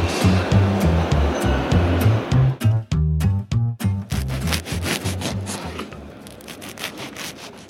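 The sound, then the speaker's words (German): A knife saws through a crusty loaf of bread in quick, rhythmic back-and-forth strokes, fairly loud, the scratchy rasp easing off toward the end. No one speaks. “das, was ihr da gerade gehört habt, das war Brot.”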